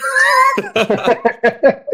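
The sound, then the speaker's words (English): A human voice imitates a yowling cat being beaten against a wall: one drawn-out wail, then a quick run of about six choppy, strangled cries, loud with no other talk. “or or you know people beating cats against walls, or whatever”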